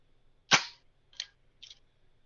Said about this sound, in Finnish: otamme tuosta tota, mitä Nikon F2, niin siirrämme, jos nostaa peili ylös, niin silloinhan se ei keikkaa, vaan saadaan pelkästään toi verhon liike. Niin, tota, tässä siis Nikon F2 ilman peiliä.